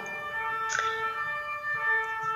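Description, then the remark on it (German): A siren wails steadily in the background, its bright harmonic tones holding without pause, with a brief sharper burst partway through as an emergency vehicle goes by. “Tatütata. Ja, das ist bei uns jetzt hier im Hintergrund.”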